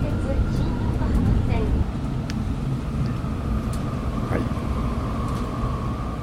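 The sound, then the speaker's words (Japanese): A muffled onboard announcement plays inside a moving public transport vehicle, the voice indistinct and partly buried beneath a steady, loud low rumble of the ride. “ちょっと車内アナウンスがうるさいですうるさいですね”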